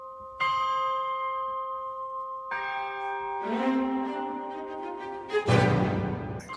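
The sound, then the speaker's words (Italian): Two deep church bells toll loudly, two ringing strikes with long lingering decays, as an orchestra swells beneath them and a heavy entry of low brass and tubas surges in near the end. “queste sono le campane.”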